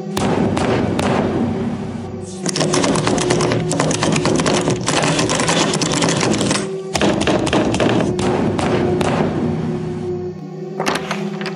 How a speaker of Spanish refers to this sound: Me presenté en casa de mi odiado amigo de madrugada. Aporreé su puerta hasta la extenuación.